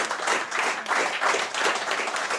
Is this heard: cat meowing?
no